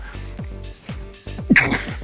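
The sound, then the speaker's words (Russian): A single sharp, loud sneeze bursts out about two-thirds of the way in, rising above a steady, rhythmic background of repeating low tones. “Будь здоров!”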